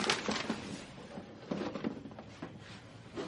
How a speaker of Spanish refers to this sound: El ayudante arrastra la silla.